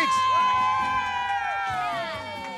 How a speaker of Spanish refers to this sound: Un aplauso para las Fénix.